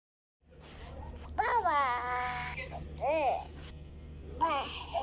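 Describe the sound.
Young toddlers babble and cry close to the mic, their voices rising into short wailing bursts, with a low steady hum underneath throughout.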